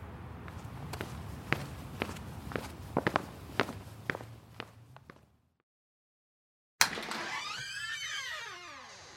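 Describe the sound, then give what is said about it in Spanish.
Brisk footsteps of someone quickening their pace toward home tap out a quick, steady rhythm, about a dozen crisp steps, then stop abruptly into silence before a sudden, sharp burst of a different, warbling sound. “Guardó la cartera en el bolsillo y aceleró el paso hacia casa.”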